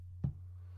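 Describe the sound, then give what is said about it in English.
A single soft computer mouse click, dull with a low thump, made while clicking through browser tabs, over a steady low electrical hum, with no other sounds before or after it. “I'm clicking the tabs.”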